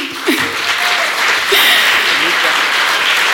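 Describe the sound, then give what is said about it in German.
Audience applause at an event in Leipzig, given for a staff member asked to stand up: a dense, steady wash of many hands clapping at full volume throughout, with a few faint voices and a brief whoop mixed into the crowd noise. “Könnt gerne mal einen Applaus geben.”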